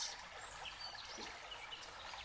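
A soft, steady babble of stream water flowing continuously, fairly quiet and even throughout, with no voices.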